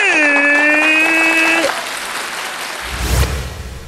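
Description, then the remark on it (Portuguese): Steady crowd applause, a dense crackling patter of many hands clapping, with a sustained tone held over it for the first second and a half before the clapping continues alone. “Vamos aplaudir!”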